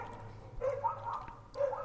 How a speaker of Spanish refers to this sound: Eh, lamento que haya chuchos por ahí fuera ladrando, pero es que no puedo hacer otra puta cosa.